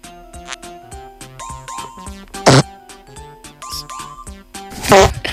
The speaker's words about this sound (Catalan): Més, més pets, vull més pets. Aquest, aquest és el soroll de la gent que ha pres Nesquik, que ha hagut d'anar corrents al bany.